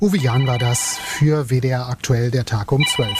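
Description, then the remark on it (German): A retro monophonic mobile phone ringtone from a man's own mobile phone sounds thin, steady high-pitched beeps that continue under the man speaking in the foreground, with the tone shifting higher near the end. “Das ist ja noch nicht mal ein polyphoner Klingelton.”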